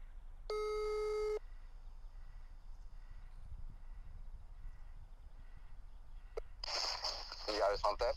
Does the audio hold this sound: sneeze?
no